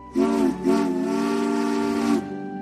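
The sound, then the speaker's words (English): The whistle of Caitlin, a sleek, streamlined purple engine, sounds alone and loud: a short toot followed by a long, steady blast with a bright, chord-like harmonic tone before cutting off. “Caitlin is a sleek, streamlined purple engine.”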